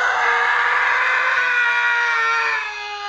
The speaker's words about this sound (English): This sound effect of a man screaming in pain, however, yeah!